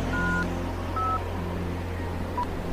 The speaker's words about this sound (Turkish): Telefonumu çıkardım, Evgenya'yı aradım.